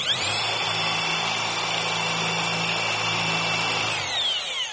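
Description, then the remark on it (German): A power drill runs steadily at high speed for about four seconds, its motor whine loud, then spins down at the end. No one speaks. “So, jetzt, jetzt ist die hier drin und wenn ich jetzt bohren will, dann stecke ich das rein”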